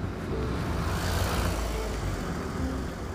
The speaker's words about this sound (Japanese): 車が通過します